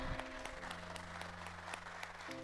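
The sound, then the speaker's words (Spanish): Steady audience applause, many hands clapping in a dense, even patter for a couple of seconds, with a low sustained hum running underneath and no one speaking; applause given to God while first-time visitors are welcomed. “Demos un aplauso a Dios por la vida de ellos.”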